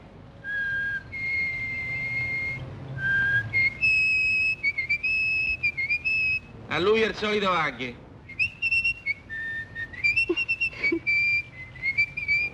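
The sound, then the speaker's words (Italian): Ugo Tognazzi, playing a deaf-mute tailor in a film, communicates in whistles: a run of clear, sustained high notes that step between pitches in speech-like phrases, broken midway by a short burst of another voice speaking. “da Ugo Tognazzi, che è un sarto bravissimo ma sordomuto, che quindi parla fischiando e a gesti.”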